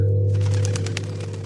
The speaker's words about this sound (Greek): Το περιστέρι πέταξε γρήγορα μακριά.